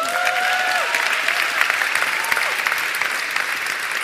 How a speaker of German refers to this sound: Ähm, in jedem Fall ist mein Herz gerade riesen, riesengroß, allein für den Applaus, den ihr mir gegönnt habt.